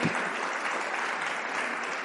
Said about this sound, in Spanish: Así que denle un aplauso al Señor si lo quiere dar en casa también.